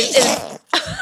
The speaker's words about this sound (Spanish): Salud. Salud. Quería que un estornudo mío quedara para la posteridad.